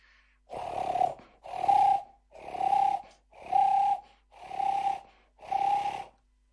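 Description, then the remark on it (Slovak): A voice imitates a turtle dove's call: six evenly spaced, breathy, purring coos, each about a second long, repeated at a steady rhythm, fairly loud, with no other talk. “Netrúfam si, priznám hrlička, sa. Hrlička, hrlička, hrku, hrku, hrku”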